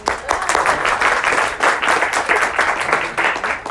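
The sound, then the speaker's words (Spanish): A crowd applauds steadily for a married couple of 17 years, many hands clapping in a dense, continuous, loud patter for the full few seconds without anyone speaking over it. “Por, por favor, un aplauso para los hermanos.”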